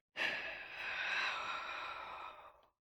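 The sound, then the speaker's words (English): A single long, heavy, anxious exhale from a man, a breathy, airy sigh lasting a couple of seconds, fairly loud, steady before trailing off. No talking. “breathing real heavy.”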